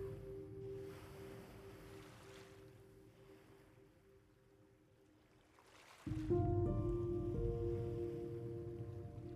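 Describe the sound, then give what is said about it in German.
Ocean waves of a vast blue sea below a cliff wash in with soft, broad surges, two swells rising and fading over a steady low mechanical drone that grows louder partway through. No voices. “Unter dir streckt sich das endlos weite blaue Meer.”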